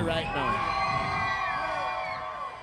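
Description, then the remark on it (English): A large crowd at a night-time DJ dance event screams and cheers loudly and continuously on the DJ's call, a dense wall of high-pitched voices and whoops that holds steady before easing slightly at the end. “If you're having a good time tonight, scream let me here right now.”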